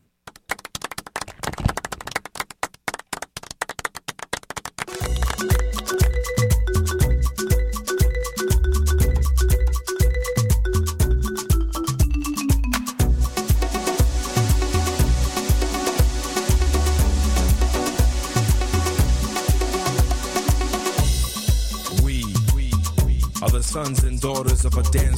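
A short musical interlude between segments of the radio program Soccer sans frontières on Choc FM: a few seconds of sharp, rhythmic clap-like beats alone, then a full, loud arrangement with deep bass and sustained melody kicks in and plays steadily without any voices.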